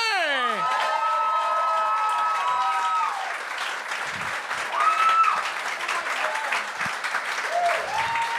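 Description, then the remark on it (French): A crowd applauds loudly and steadily for Virginie Fortin for about eight seconds, with cheers, whoops and whistles rising over the dense clapping, strongest at the start. “Faites un maximum de bruit pour l'excellente Virginie Fortin!”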